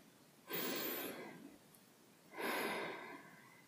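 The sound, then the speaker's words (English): Two slow, deep breaths, an airy inhale followed after a pause by a longer, softer exhale, with quiet stillness around them and no talking. “yeah, let's do another one. In and out.”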